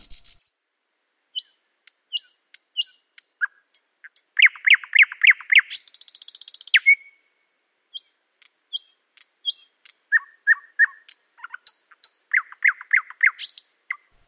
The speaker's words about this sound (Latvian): Šī nulle dzirdētā lakstīgala gan nav no tām ulmainlaiku vaska platēm, bet pēdējo gadu ieraksts, ko veicis šobrīd profesionālākais putnu balss ierakstītājs Latvijā